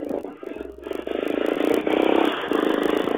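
A motorcycle engine drones steadily, its pitch and loudness climbing as it revs, with rushing wind noise and faint rattling throughout.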